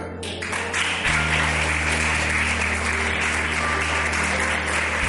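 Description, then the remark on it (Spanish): A church audience breaks into sustained applause for the pastor, a woman, a dense wash of clapping from many hands that swells within the first second and stays steady and loud, with a low hum underneath. “darle un aplauso a la pastora.”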